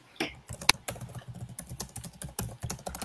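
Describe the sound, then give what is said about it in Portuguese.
Rapid, uneven keyboard typing fills the whole stretch: a dense run of light plastic key clicks with a few sharper, louder strikes, with no voices. “Tem alguém digitando em alguma coisa.”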